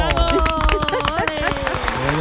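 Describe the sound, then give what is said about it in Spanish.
A small studio audience claps steadily throughout to welcome Mariano Peña on his arrival at the studio, a dense, continuous patter of hands over a bed of music, with some crowd murmur mixed in. “Acaba de llegar al estudio, quiero un aplauso, ¿eh, chicos.”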